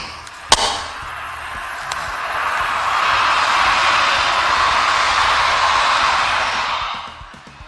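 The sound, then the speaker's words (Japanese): A train passes by, its broad rushing roar swelling over several seconds, holding steady, then fading away, with a sharp click near the start and no talking. “うん、ちょっと今電車が通りますね。”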